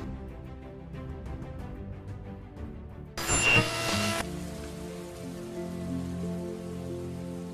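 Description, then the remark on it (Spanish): Steady rain hisses down after a brief louder rush, settling into a dense, even patter, with soft sustained musical tones continuing underneath from the start. “Este cuento relata un poco la historia, o bueno, la forma en que empieza a llover e-, en, en Macondo.”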